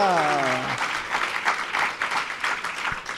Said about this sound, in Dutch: ze wil gewoon niet zeggen, want ze klappen nu al.